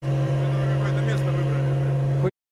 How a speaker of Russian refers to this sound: Конечно, шумно. Но... Да, надо попросить его выключить тачку. Как издевается, да? Но... Он, знаешь, в зеркало смотрит такой, мы такие, значит, только начали, он такой, онь, онь, онь, онь.